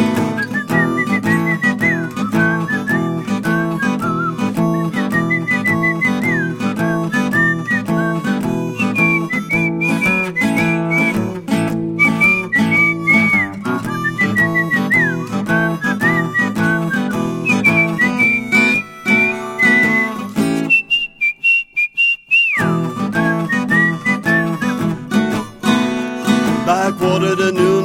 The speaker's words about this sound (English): mom's whistling a tune of her own and she adds with a smirk.